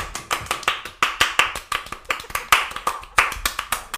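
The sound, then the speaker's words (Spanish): Several hands clapping in quick, slightly uneven bursts, a short round of applause with sharp, bright claps overlapping at a steady lively pace, no talking over it. “Aplaudimos.”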